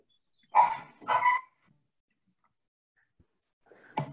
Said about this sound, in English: sorry we got the dog barking in the background